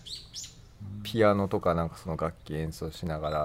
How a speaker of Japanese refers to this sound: BGM も載せてて、うん、で鳥も鳴いてるじゃないですか、うん、配信版ね、はい、そうするとさ、うん、この鳥の鳴き声も BGM なんじゃないかと思われてそうで、ちょっと心配なんですけどこれマジで鳴いてますね マジで鳴いてますね すごいですよね